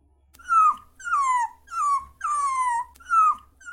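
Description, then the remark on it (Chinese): A golden-yellow Chinese rural dog, about seven or eight months old, whines in five drawn-out, high-pitched cries, each sliding downward in pitch, with short pauses between them and no voices present. “当时这种实验动物都到实验楼的时候，我会看到有很多金黄色，农村里面基本上都会看见的一些田园狗，它们大概就七八个月大，体型不会说特别的长，它们都会摇头摆尾，真的很可爱。”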